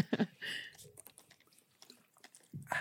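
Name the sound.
drinking water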